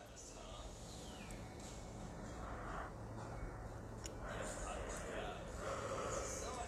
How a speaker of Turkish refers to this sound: Hala esniyorum.